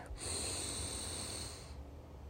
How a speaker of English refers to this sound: So this is an example of breathing. So you want to inhale and you want to go,